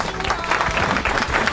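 A short burst of applause, many hands clapping in a dense, steady patter that stays fairly loud throughout, with no one speaking over it.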